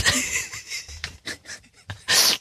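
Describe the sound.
A person blows and huffs breathily into the microphone, a series of airy gusts ending in one long loud whoosh, imitating wind blowing.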